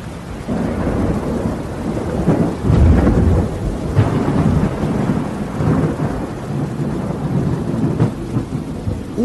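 A thunderstorm with deep, continuous rolling thunder rumbling loudly through the whole stretch, swelling in heavy surges, with steady rain hissing underneath and no voices.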